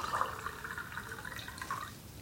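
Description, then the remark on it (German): Water pours steadily into a glass, a continuous splashing trickle with a rising, filling tone, heard on its own without any talking. “Das war, glaube ich, etwas zu laut hier. Ja. Wasser einschütten.”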